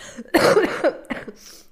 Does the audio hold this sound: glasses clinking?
no